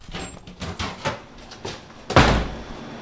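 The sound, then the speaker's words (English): The door of a lab where goat embryos are frozen opens with a few rattling clicks and knocks, then shuts with a heavier thump about two seconds in, with no one speaking. “the lab supervisor, greets us at the door and shows us around.”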